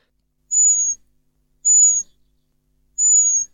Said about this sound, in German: Das ist auch eine Amsel. Das ist auch eine Amsel, das ist der Luftfeind, der Sperber zum Beispiel bei uns, der ganz diesen feinen, man hat den Unterschied gemerkt, gell? das ist ähnlich wie beim Murmeltier, das macht auch einen schrillen Pfiff